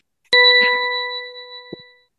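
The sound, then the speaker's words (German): A segment jingle introducing the listener-participation segment "Na, wer bin ich?": a single bright chime strikes sharply and rings out with steady, evenly spaced tones that slowly fade over about two seconds, with a faint soft knock near the end of the decay. “Höre ich das erste Mal übrigens genauso wie ihr auch, diesen ja. wunderschönen ja. Jingle.”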